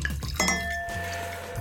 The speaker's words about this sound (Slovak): Ty si mi povedal, že preferenciu biele suché, tak e, asistenti vybrali od vinárstva Domín Kušický Pinot Blanc 2017, vínko. O, to znie fantasticky. Znie to fantasticky, no. veríme, že to tak bude aj chutiť, tak si štrngneme na privítanie.